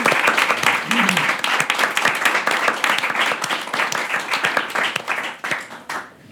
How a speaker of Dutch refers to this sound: Nou, daar mogen we best voor applaudisseren.